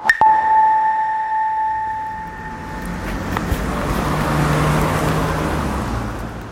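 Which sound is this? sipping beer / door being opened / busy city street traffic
busy city street traffic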